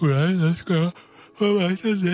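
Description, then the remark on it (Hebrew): A loud voice asks a short question in a drawn-out, stretched way, as if speaking through a yawn; a father yawning again as he asks whether someone lives in a house, walking hand in hand with his daughter. “שאל אבא, ופיהק שוב, ובגלל הפיהוק שלו זה נשמע ככה.”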